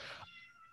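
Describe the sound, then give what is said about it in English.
A single short cat meow, clear, with a bright harmonic tail fading out after a broad opening burst; no talking. “Sorry, that's the cat.”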